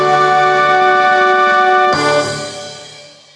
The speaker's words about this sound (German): was du da hörst, sind die Musiker vom Zirkus Rubini